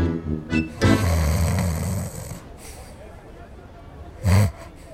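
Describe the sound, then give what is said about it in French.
A loud, rasping snore from someone being massaged rumbles for over a second, followed after a quiet pause by a shorter, sharper snort-like snore near the end. “Il ronfle.”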